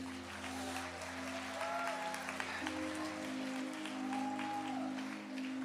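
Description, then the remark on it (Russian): An audience applauds steadily for several seconds, a dense, even clatter of many hands, with a sustained low keyboard tone underneath and a couple of brief rising vocal whoops. “Дай ему большие аплодисменты.”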